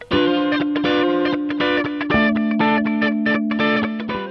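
Bright, heavily processed electronic pop music plays continuously at a loud, steady level, with a sustained low synth note underneath, shimmering layered chords and a pulsing rhythm. No voices are heard.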